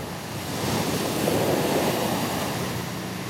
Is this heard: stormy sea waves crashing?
yes